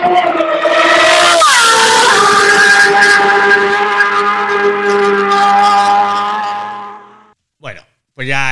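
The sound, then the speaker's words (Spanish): A high-revving Ducati motorcycle screams past at full speed, its loud whining engine note shifting pitch as it goes by and fading away after several seconds, followed by brief voices. “ha pasado por ahí la Ducati a toda leche.”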